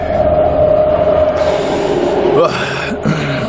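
A metro train on a public transport line rumbles loudly, a steady mechanical drone with a sustained tonal whine, then shifting hiss and brief squeals as it changes speed, with faint background murmur.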